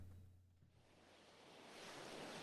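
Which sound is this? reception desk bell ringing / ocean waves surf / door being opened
ocean waves surf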